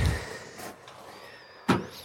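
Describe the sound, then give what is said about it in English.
A greenhouse door is shut with a single sharp, solid thud, preceded by some soft shuffling and a faint high squeak, then quiet settles in. It is a cold day, and a pane of glass is missing from the greenhouse roof. “Let's shut that door.”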